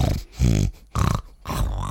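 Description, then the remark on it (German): A person imitates a French Bulldog snorting while chewing a bone, with three wet, gurgly snorts in quick succession, each a short burst of rough, nasal breathing, fairly loud with no other sounds. “Ein French Bulldog. Und äh, der schnauft dann dabei immer.”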